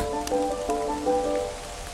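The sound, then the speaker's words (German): Steady rain patters on the leaves of old beech trees, about 200 to 300 years old, in the Teutoburg Forest at Bad Iburg, a soft continuous hiss broken by a few sharper drops, with no voices. “Du stehst im Wald, man hört den Regen auf den Blättern der alten Buchen.”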